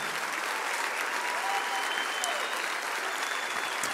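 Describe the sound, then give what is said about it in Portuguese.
A church audience claps steadily for people as they walk out, a dense, even wash of many hands applauding at a constant level throughout, with no pauses or individual voices standing out. “Vamos aplaudi-los bem forte, irmãos, por favor.”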